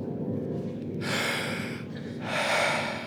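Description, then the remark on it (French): An actor takes a deep breath before going on stage, heard as two airy, rushing swells of breath over a low, steady background hum, with no talking. “Il prend une grande respiration et monte sur scène.”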